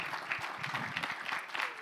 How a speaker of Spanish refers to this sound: denles ahí un fuerte aplauso a Víctor